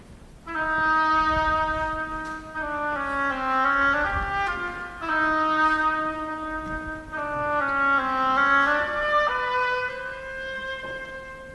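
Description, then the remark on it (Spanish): A solo oboe plays the duck's slow, plaintive theme from Peter and the Wolf, in an orchestral performance conducted by Sergio Comisiona: sustained, nasal reedy notes moving gently up and down in a few long phrases, steady and fairly loud, with no voices. “El pato por el oboe.”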